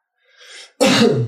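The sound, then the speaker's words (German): A single loud cough, preceded by a brief breathy inhale, with no talking. “Sorry, ich habe ein bisschen Husten.”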